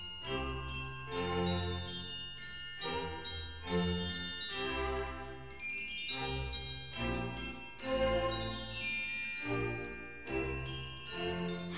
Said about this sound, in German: spielt Mozart die kleine feine Melodie auf dem Glockenspiel weiter